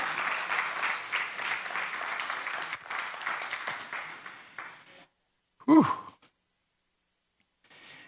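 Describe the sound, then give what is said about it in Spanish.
An audience claps for the Lord in a dense, sustained wash of applause for about five seconds, then it stops abruptly. A single loud, falling vocal exclamation follows after a brief silence. “Dele palmas al Señor.”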